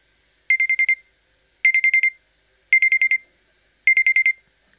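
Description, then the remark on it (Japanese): An alarm clock beeps in four quick bursts of rapid high-pitched pips, each burst separated by a short pause, loud with no other sound, waking someone in the morning. “ピピピッと目覚ましのアラームが鳴る音で目が覚めた。”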